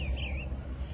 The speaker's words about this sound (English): Well, this morning I am outside in sunny Florida enjoying the weather here that we have. What a beautiful day it is. I hear the birds singing behind me.